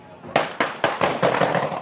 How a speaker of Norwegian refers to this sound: Alle skuddene fyres av. Det er ikke mulig å se noe på filmen en nabo tok opp utenfor nattklubben Pulse natt til søndag, men skuddsalvene som drepte 49 mennesker, høres godt